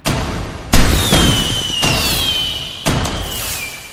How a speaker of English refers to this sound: Taipei officials say the show took about six months to prepare 准备 and will be one of the biggest fireworks shows the Taipei 101 has ever had.